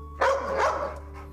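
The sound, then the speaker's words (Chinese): A blind man's former guide dog, Happy, waiting at the door, gives a single drawn-out, tonal bark that rises and falls, followed by a faint trailing whimper, over a low steady background hum. No one speaks. “在他离开时，竟然发现自己曾经的导盲犬就在门口等待。”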